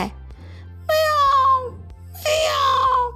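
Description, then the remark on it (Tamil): A voice imitates a kitten trying to roar like a tiger, producing two thin, drawn-out mewing cries that slide downward in pitch, fairly loud over a low steady hum. “அந்த புலிக்குட்டி சரி நான் புலி தான் ஒத்துக்கிறேன் அப்படின்னு சொல்லிட்டு புலி மாதிரி உருமை ட்ரை பண்ணால் அதுக்கு என்ன வருது வாயில்”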